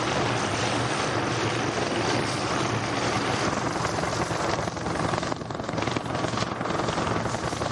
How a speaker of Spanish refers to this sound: Un helicóptero aterriza en un helipuerto.